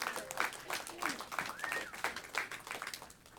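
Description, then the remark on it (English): A crowd at a gathering claps steadily for a few seconds after hearing that the community provided extra funds for the diaconate, a dense patter of many hands at moderate loudness, with a few voices faintly audible underneath. “Yeah, you clap for that.”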